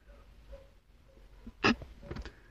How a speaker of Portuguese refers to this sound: Tem cachorro latindo e tem uma serra, cara. Tem um cachorro latindo e tem a porra de uma serra.